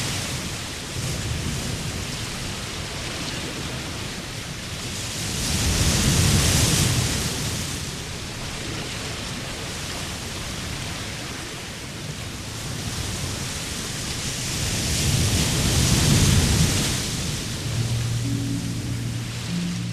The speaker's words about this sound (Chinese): 海浪的声音真的非常好听，夜晚的海就像一个无垠的宇宙，